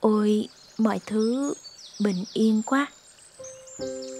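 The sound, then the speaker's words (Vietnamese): Birds sing with quick, high chirps and twitters throughout, fairly faint in the background, after the previous night's rain has stopped, while a person speaks softly over them. “cơn mưa tối qua đã dừng hẳn rồi mình nghe thấy tiếng chim hót đâu đây êm tai quá”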